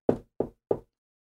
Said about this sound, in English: Why don't we uh, knock on the door? Okay, let's go knock on the door.